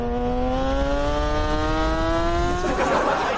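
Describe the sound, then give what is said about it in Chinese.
A Ferrari sports car engine revs loudly, its buzzing tone climbing steadily for a few seconds before breaking into a rougher, noisier roar near the end, with no talking. “感受一下法拉利的刺激啊！”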